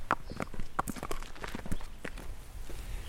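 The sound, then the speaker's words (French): Steady footfalls of Ouxmal, a trail-riding horse, walking along a path in Ille-et-Vilaine, Brittany, a regular series of soft thuds, with faint outdoor ambience and no talking. “On prend la route avec Ouxmal, son cheval de randonnée.”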